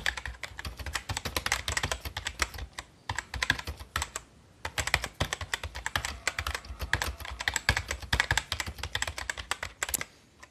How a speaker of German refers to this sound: Das zweite sind Ta äh, Tastaturen, ähm, also Keyboard-Tastaturen, die klappern.